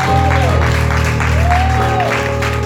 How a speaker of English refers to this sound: We give you praise. Come on and give the Lord a hand of praise. Come on, apostles.